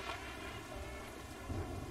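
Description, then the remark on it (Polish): Steady, dense rain at the end of the day over the town of Insmouth patters against windows, walls and the ground, a continuous hiss with a low rumble beneath it and a slight surge near the end. No voices are heard. “Padającego deszczu, który cały czas obijał się o okna, obijał się o ściany, obijał się o ziemię, o wszystko.”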